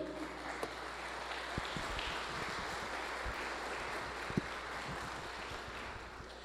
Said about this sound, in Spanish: Le damos un aplauso al Señor.